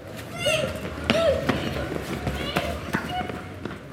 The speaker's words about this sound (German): Auf einem Platz spielen ein paar Kinder Fangis. Im Hintergrund hört man den Verkehr rollen.